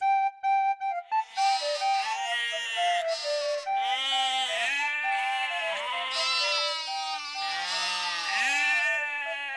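sheep bleating

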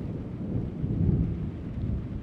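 thunderstorm with thunder

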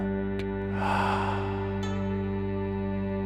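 slow exhale

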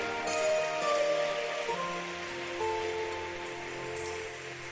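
audience clapping hands

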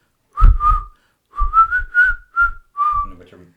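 person whistling a tune

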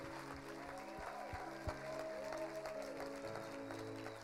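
audience clapping

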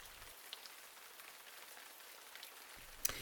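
heavy rain pouring down

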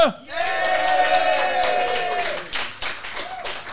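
audience cheering and clapping

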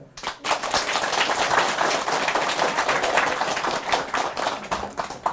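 audience applause

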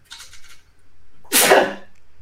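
sneeze

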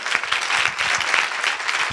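audience applauding

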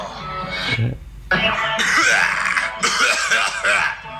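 coughing and throat clearing

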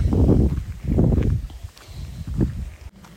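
footsteps

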